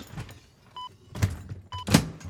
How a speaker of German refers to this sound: So, noch die Tür zu machen